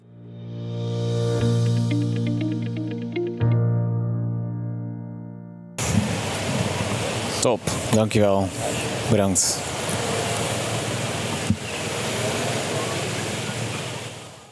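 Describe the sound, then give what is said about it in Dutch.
Outdoor cafe terrace beside a very busy intersection: a steady wash of traffic noise surrounds brief talk, after an opening stretch of a sustained tonal hum. “Een mooi cafeetje aan een hele drukke kruising.”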